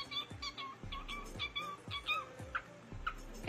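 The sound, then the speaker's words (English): A teenage girl's pet bird squawks along to a song, its loud, rhythmic calls repeating roughly every half second over a steady low beat. “Can you imagine if you had a bird like that?”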